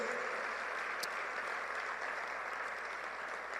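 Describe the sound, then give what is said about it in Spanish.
An audience applauds the Lord steadily, a dense wash of many hands clapping at an even, sustained level for several seconds with no voices standing out. “Dale un aplauso al Señor porque Él cuida de nosotros.”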